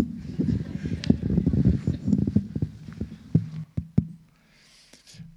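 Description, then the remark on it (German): A microphone is being handled and swapped: dense rustling and thumping, then several sharp knocks that end in near silence with a faint breezy hiss. “Da war das Unsägliche passiert, dass wir das Mikrofon wechseln müssen.”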